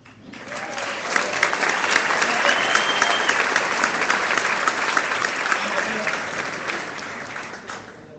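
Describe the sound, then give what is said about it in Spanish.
An audience claps steadily for about eight seconds, a dense, even wash of many hands that swells quickly, holds at a loud level, and tapers off at the end, applauding the speaker's wife at his request. “Le pido un aplauso.”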